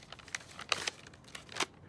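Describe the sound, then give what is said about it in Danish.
Dry crinkling of paper as a letter is unfolded and handled, a few brief rustling bursts with a louder crackle near the middle and another toward the end, no voices. “Og det brev har jeg bedt ham finde frem.”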